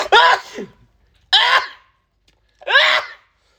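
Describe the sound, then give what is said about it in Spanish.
Three loud, forceful sneezes from a man, evenly spaced about a second apart with short silences between, each a sharp voiced burst that trails off quickly. “Así estornuda un hombre.”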